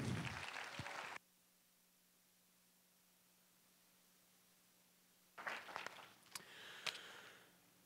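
An audience applauds in a dense burst of clapping that cuts off abruptly, then a long quiet pause with a faint steady hum, before a second, patchier round of applause with a few sharp claps.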